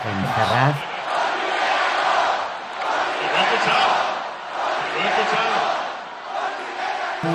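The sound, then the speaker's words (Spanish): A large crowd of PSOE party supporters on Calle Ferraz chants the slogan "Con Rivera no" in unison, loud and roaring, the phrase rising and falling in a steady repeated rhythm about every couple of seconds, with whistles and shouts mixed in. “Oye, lo que ha sido muy interesante es cómo han gritado en, las,”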